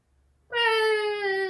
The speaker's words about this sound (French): C'est quoi le bruit? C'est un enfant qui pleure dehors.